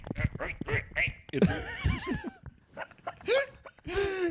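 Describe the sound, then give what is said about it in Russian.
A voice imitates a bird straining in flight with a loud run of strained grunts and wavering, croaky groans, short bursts broken by brief pauses. “я подумал, прикинь бы, как птицы кряхтели, прикинь бы, как птицы летали вот так.”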